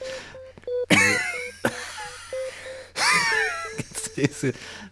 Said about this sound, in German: Du atmest so laut.